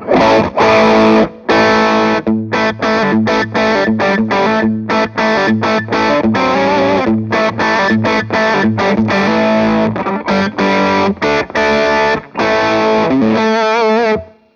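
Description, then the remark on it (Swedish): Electric guitar through a classic Tube Screamer overdrive pedal, tone set around 12 o'clock, plays loud, gritty chords in a choppy rhythm with brief gaps, then closes on a ringing, wavering chord. No one speaks. “Det här är en klassisk Tube Scream.”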